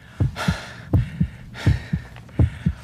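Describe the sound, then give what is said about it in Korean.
A loud heartbeat thumps in steady lub-dub pairs, four double beats in quick succession, with soft breathy rushes of air between them and no talking: a father's nervously pounding heart as he goes down steep stairs to a basement tearoom (dabang). “두근대는 가슴을 진정시키며 지하 에 있는 다방에 가파른 계단을 내려가고 있었는데요.”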